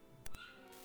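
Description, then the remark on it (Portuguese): A dog yelps out on the street, two sharp bursts followed by a thin, drawn-out whine, muffled. “Tem um cachorro gritando aqui na rua.”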